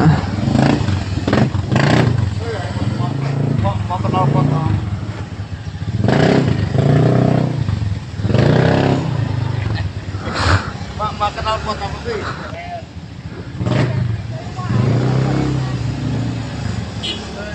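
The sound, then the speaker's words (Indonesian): Motorcycles and cars idle and rev in slow, congested traffic in the mountains, with engines rumbling steadily, occasional clattering and revving bursts, while a person talks over the noise. “Gunung juga macet guys ya”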